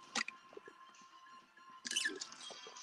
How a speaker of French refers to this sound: Ouf! Petite gorgée. J'avais la gorge sèche.